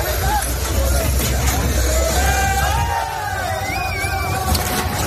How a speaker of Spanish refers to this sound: Así suena el momento en el que uno de los tractores que participan en la protesta vuelca, un camión con frutas y hortalizas españolas ante la pasiva mirada de unos 10 gendarmes.